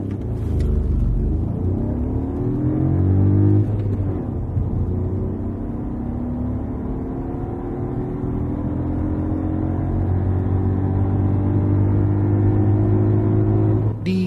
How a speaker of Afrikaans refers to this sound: Die nuwe Jarres se ratverhoudings is redelik kort wat goed werk in stadsverkeer, maar teen 120 sing die masjien hoorbaar aan die ander kant 3500 toere. 'n Sesde rat sou welkom wees.